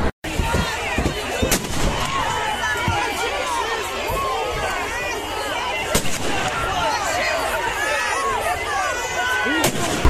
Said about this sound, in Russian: Потом, когда стали перегородили автобус, они начали под ноги нам кидать петарды или гранаты, или патроны. Светосумовые гранаты.